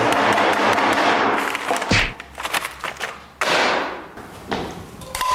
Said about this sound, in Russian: Он же может не работать. Что? Телефон. После чего? После удара молотком.